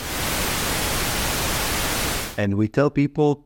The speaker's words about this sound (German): Zusätzlich bekamen die Teilnehmenden beim Stupsen jedes Mal dieses kurze Rauschen vorgespielt.